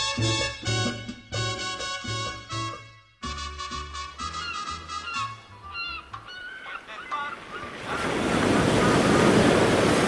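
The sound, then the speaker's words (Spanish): Ocean waves and wind on a beach. Bursts of honking, horn-like calls come first, then a loud, steady rush of surf and wind swells up and fills the last few seconds. “Está chido esto de estar aquí echado en la playa.”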